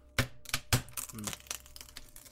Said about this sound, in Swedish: Här är plankorna. Nu tar vi bort dem. Ja. Ställ dig här och hoppa lite då. jag försöker dra loss dem med mina händer